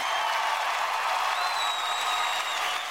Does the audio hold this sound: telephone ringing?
no